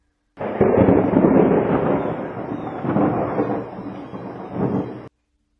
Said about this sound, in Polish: Zacznę od tego, że dzisiejsza pogoda jest nieładna. Oh yeah! Nieładna. Pada, wieje